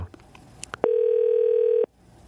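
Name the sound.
telephone ringback tone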